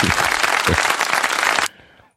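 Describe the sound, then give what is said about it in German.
A burst of audience applause sound effect, dense and steady clapping for about a second and a half, then cutting off abruptly into near silence. “Publikum heute leider wieder ein bisschen Zeit versetzt, aber mein Gott, so ist das halt.”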